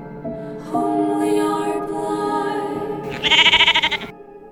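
A sheep bleats, a drawn-out nasal call followed by a louder, quavering bleat, with no other sounds around it.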